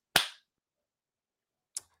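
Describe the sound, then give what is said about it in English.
Two sharp hand claps, separated by a pause of about a second and a half. The first is louder with a brief ringing tail, the second softer and shorter. Nobody speaks. “Clap your hands. clap of the hands, you get people attention.”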